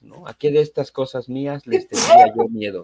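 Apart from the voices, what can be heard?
sneeze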